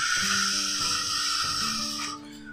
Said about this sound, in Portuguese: um ruído de água caindo e batendo em pedras.